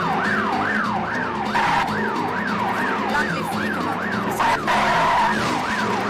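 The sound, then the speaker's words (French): A loud siren, switched on by the driver of a truck, wails continuously, its pitch sweeping up and down in a fast repeating cycle, with engine rumble and road noise underneath. “Ah moi aussi je peux mettre les, sirènes, trop bien.”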